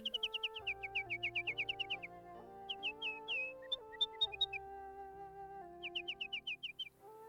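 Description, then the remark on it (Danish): A nightingale sings in quick bursts of bright, repeated chirps and whistled notes, pausing between phrases, layered over soft sustained instrumental music with a low bass line. No one speaks. “Jeg har fået tårer af dine øjne første gang jeg sang. Det glemmer jeg da aldrig, sagde nattergalen.”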